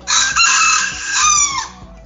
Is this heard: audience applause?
no